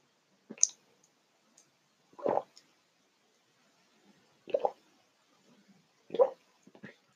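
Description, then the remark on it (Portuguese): Someone takes a drink of water: a small click, then three or four soft wet gulps spaced about two seconds apart, with quiet between them and no talking. “Vamos tomar uma água?”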